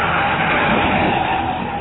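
A car engine roars at high revs while tires screech, a loud, dense burst of motor and skid noise lasting about two seconds with no talking.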